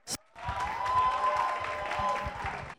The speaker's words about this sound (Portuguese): Palmas!